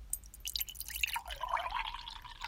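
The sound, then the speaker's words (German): Cold children's punch pours into a cup with a steady trickling splash and a rising gurgling tone as it fills, fairly quiet, lasting a couple of seconds with no talking. “Hier wird jetzt äh, kalter Kinderpunsch verkostet.”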